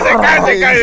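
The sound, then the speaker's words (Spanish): A voice imitates a sudden snore, as of a person with narcolepsy falling asleep instantly: one short, fairly loud rasping vocal sound lasting under a second. “Roncando instantáneamente.”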